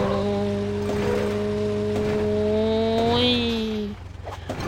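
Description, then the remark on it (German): A video game bus engine hums with a steady, tonal drone, its pitch rising briefly as it revs before cutting off near the end, with no talking. “Okay, dann jetzt halt mit der mit Bus.”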